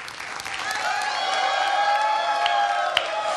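A crowd lets out a long, sustained, high-pitched collective yell, a traditional Mexican grito, with scattered claps and cheers mixed in, loud and steady throughout.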